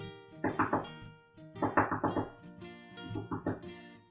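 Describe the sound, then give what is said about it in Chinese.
Knocking by an animal on the door of a beehive comes in three quick bursts of three or four dull thuds each, with a tonal musical backdrop running steadily underneath. “第二天早上还未破晓，就是天还没亮，蜜蜂们听见蜂巢外面传来一个声响，好像是有动物在敲门。”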